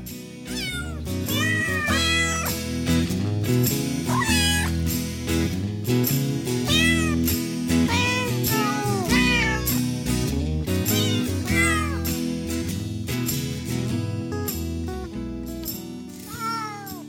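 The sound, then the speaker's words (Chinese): Repeated cat meows, rising and falling in pitch, sound throughout over a steady, fairly loud musical backing with no talking. “关于这猫的十四个故事吧。”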